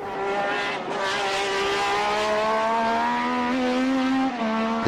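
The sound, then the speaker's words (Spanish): A loud racing car engine, car number 3 in a race, roars with a raw, thunderous exhaust because its exhaust manifold and pipe have broken, its pitch holding steady and rising slightly as it revs continuously, with no voices present. “El número 3 que fue cómodo primero, hasta que lamentablemente empieza a sonar como un trueno porque se había degollado el múltiple escape, el caño escape.”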